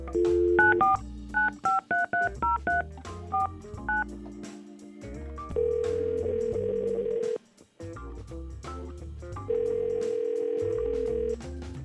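A quick run of touch-tone beeps as hosts of Y100 radio in San Antonio key in a phone number, followed by two long, steady ringback tones with a pause between them, clear, with no talking.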